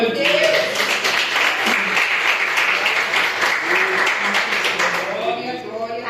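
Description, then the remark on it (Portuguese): An audience at an evening church service claps in praise of the Lord, steadily in a dense, continuous wash of applause, with voices calling out and murmuring underneath before the clapping thins near the end. “E eu agradeço a oportunidade de palmas que louva Senhor.”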